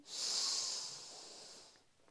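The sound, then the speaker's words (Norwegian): A single long, deep inhale drawn in through the nose during a relaxation breathing exercise. It is airy with a hissing quality and lasts nearly two seconds before fading out. No talking. “Pust godt inn.”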